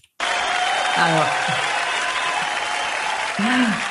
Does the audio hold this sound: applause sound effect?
yes